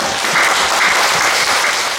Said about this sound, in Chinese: 好，真的要跟他拍拍手。